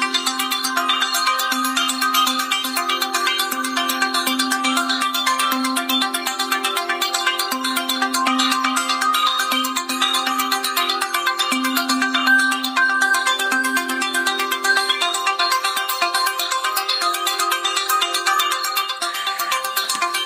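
A pop song by an English singer plays steadily at a loud, even level, carried by bright, sustained synthesizer tones over a shifting low melody, with no talking over it.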